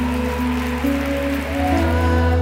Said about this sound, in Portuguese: Quantos creem nisso podem aplaudir Jesus bem forte?